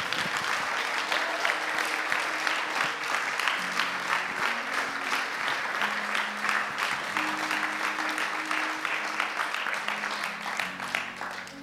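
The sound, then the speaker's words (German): A church audience applauds steadily for several seconds for those who made a decision that day, a dense wash of clapping from many hands with a faint sustained tone underneath. “Komm, lass uns mal einen Applaus geben für die, was sich heute entschieden haben.”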